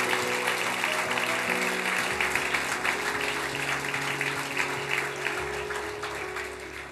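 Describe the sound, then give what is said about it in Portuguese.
An audience claps loudly and steadily for Jesus for several seconds, a dense wash of applause with sustained low tones from music or organ underneath. “Aplauda bem forte a Jesus.”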